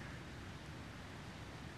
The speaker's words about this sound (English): You probably hear the wind and the trees.